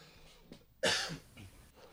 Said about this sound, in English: That was not a Corona cough. It was like fucking pita chip still stuck in my throat.